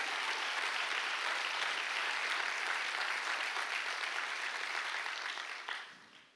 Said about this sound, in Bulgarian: Имам ли някой днес в църква пробужден, който може да ръкопляска на Бог?